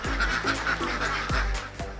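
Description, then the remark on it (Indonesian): A crowded flock of laying ducks in a pen, a pen holding about 500 ducks, quacks constantly, harsh overlapping calls piling on top of each other, loud and busy with no pauses and no voices. “setiap hari, satu kandang berisi sekitar 500 ekor bebek petelur bisa menghasilkan 350 butir telur.”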